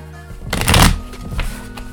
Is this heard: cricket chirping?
no